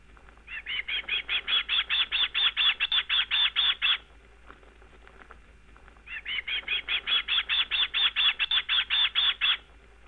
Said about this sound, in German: Wenn sie nicht selbst auf Jagd gehen, sitzen sie auf dem Nest und hoffen, doch nochmal von den Eltern gefüttert zu werden. Und so hört sich das dann an.